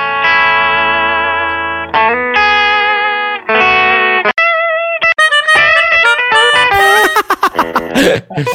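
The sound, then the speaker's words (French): Heavily distorted electric guitar, played through a distortion pedal, plays a few long, sustained power chords, then breaks into faster lead phrases that climb higher with bends and quick runs, loud and buzzy throughout with no talking. “Allez, vas-y, enclenche la pédale, mon pote.”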